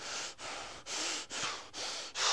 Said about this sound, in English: And what our body does is our body reacts to anger in much the same way that it does when it reacts to stress. You start breathing heavily.